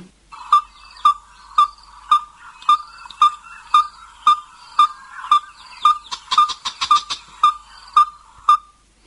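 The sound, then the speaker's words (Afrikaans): A yellow-fronted tinkerbird calls a long, steady series of identical clear, ringing notes, about two per second, with other birds briefly chattering in the background partway through. “Die tweede een wat hy ook hoor en ek dink dit is baie beduidend, is die geelbek tinker en hy klink so.”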